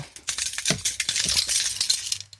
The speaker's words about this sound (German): Ich habe auch einen Schlüsselbund. Und du, ich habe da so einen Messing-Anhänger. Hörst du mhm. das? Ja. Der ist so schwer, dass jedes Mal, wenn ich fliege, werde ich rausgewunken, weil die denken, das ist eine Handgranate.